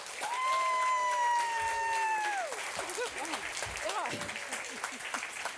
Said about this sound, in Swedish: Ge dem en varm applåd.